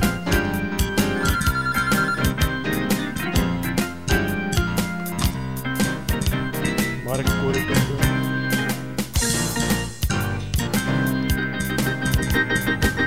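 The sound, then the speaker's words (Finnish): A phone rings with a loud, busy musical ringtone that plays continuously for several seconds, a steady rhythmic melody with punchy beats and no talking over it. “Tuo puhelinsoittokin tuli vielä jotenkin tuohon väliin.”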